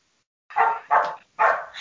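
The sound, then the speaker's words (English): A female dog barks three times in quick succession, each bark sharp and fairly loud, with brief gaps between them and no talking over the sound. “I don't know what she's barking at unless it's a deer.”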